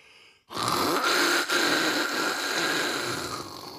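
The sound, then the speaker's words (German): A person imitates snoring with a long, rasping, noisy inhale that starts abruptly and holds for several seconds, loud, with no talking. “Das Schnarchen ist schon hart.”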